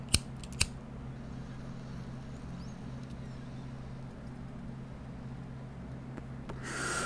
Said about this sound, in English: Let me hit this bowl real quick, y'all.